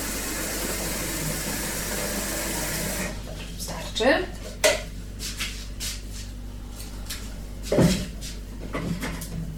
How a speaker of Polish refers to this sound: Przykrywam to wiaderko i wstawiam tutaj właśnie gdzie...